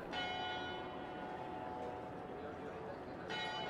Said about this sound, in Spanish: Y entonces me encariñé con el sonido de las campanas. Y de vez en cuando grabo campanas de iglesias cada vez que puedo.